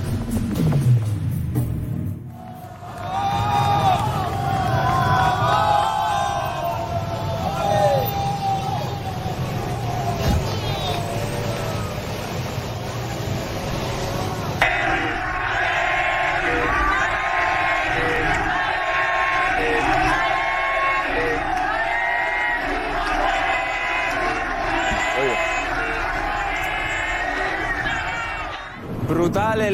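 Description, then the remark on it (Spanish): A huge crowd of Atlético de Madrid fans cheers and chants loudly and continuously as they welcome the team at the Metropolitano stadium. Their voices blend into a roaring mass, and partway through the chanting settles into a steady rhythmic pulse. “pero atención amigos de Fox, así ha sido el espectacular recibimiento a la Leti en el Metropolitano.”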